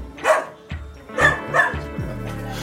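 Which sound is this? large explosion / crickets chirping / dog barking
dog barking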